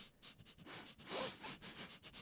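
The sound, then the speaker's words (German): Repeated short, quick sniffs as a person smells food, airy bursts in an uneven rhythm with one stronger inhale near the middle, and no talking. “riecht das Essen”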